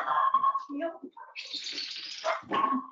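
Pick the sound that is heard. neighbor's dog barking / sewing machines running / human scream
neighbor's dog barking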